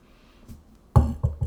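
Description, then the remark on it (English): Three hollow knocks on wood, the first the loudest, followed by two quicker, slightly softer raps in an uneven rhythm, with only faint background noise before them. “just knocked on wood haha”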